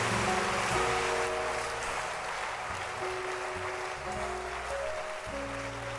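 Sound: audience clapping hands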